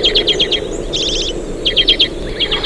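A common redpoll sings in quick bursts of high, dry chirps and a buzzy trill, repeated several times in a row over a steady low background hum.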